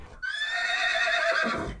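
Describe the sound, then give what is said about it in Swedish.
A horse lets out one loud whinny lasting about a second and a half as it takes the bit between its teeth and throws itself around on its hind legs, its shrill tone holding steady before breaking into a rougher, fluttering finish. “Men Herren som vill ej förlora någon själ gav hans hästen styrka att fast om han med våld och sporre forcerades att springa ut i avgrunden tog hästen betselstången mellan tänderna och kastade sig om på bakbenen ifrån söder till norr.”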